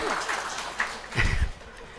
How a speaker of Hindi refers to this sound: अरे हाँ ताली बजा क्या क्या बजवा लिया करूँ